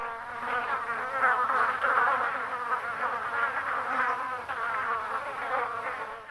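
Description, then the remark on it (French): Several flies buzz steadily around food scraps on dirty dishes among abandoned stone huts at the border post entering Mauritania, a dense, wavering drone with shifting pitch that fills the whole stretch without pause. No voices are heard. “De cabanes en pierre à l'abandon, des tas de vêtements et des restes de nourriture qui garnissent la vaisselle sale pour le plus grand plaisir des mouches.”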